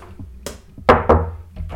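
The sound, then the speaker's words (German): The door of a home cinema's anteroom being worked: a short latch click, then two heavy wooden thuds in quick succession, followed by a faint rattle, with no voices. “Genau, so eine Tür, das ist so der äh, Vorraum-Sound.”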